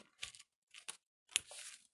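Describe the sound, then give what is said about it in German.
Three short bursts of scissors snipping zigzags into a stiff paper bag, each a crisp crunching cut, the last one longer with a rustling drag. “Dann haben wir jetzt Zacken da reingeschnitten.”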